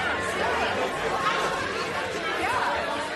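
A crowd murmurs in the galleries of a tribunal, many indistinct voices overlapping into a steady, dense babble of chatter that holds at a constant level with no single voice standing out.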